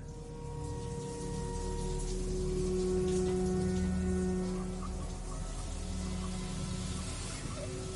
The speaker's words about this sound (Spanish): De repente, escuchamos agua correr. ¿Escuchaste eso? Sí. Caminé por el corredor. Abrí la puerta del baño. La ducha estaba abierta y todas las llaves también.